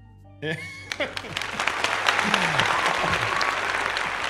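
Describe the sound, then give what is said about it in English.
Clapping starts abruptly after a brief quiet moment and continues as a steady, dense patter of hand claps, with a voice faintly heard underneath at times. “is giving you a little clap.”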